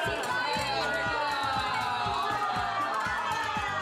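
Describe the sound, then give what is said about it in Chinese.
A crowd of many voices at a Malaysian Chinese New Year's Eve dinner held in Taiwan shouting auspicious New Year blessings in turn, trying to be loudest, overlapping and boisterous, a steady loud wall of cheerful calls that runs unbroken through the whole few seconds. “喊得比大声还要接龙讲吉祥话，就是要让来年运势心想事成。”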